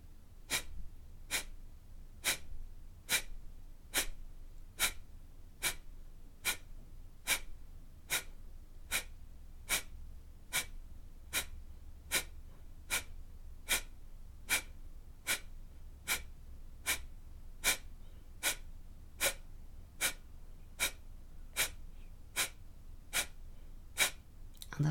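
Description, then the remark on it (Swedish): A steady series of about thirty sharp, forceful kapalabhati breath exhalations through the nose, done after exhaling halfway, evenly paced under a second apart, fairly loud with no talking. “andas ut halva vägen och 30 kaplabhati.”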